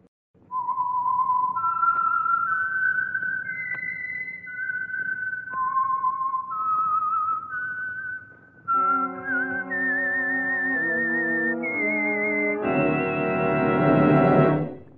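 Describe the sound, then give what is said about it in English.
A lone whistler carries a slow, wavering melody of held notes, then a full orchestra takes up the tune in rich sustained chords, swelling louder before it ends. It is the signature whistle of the Signal Oil radio program, The Whistler. No one speaks. “And for Sunday evening listening pleasure, the signal to listen for is this whistle that identifies the signal oil program, the Whistler.”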